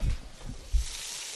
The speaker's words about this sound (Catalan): Carai, sí que has posat menjar a la fregidora.